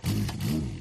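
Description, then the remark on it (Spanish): A 30-horsepower motorcycle engine drones past at speed on a motorway, a steady buzzing rev with a slight rise and fall in pitch, loud for a brief moment. “Cuando una moto de 30 caballos va por la autopista suena así.”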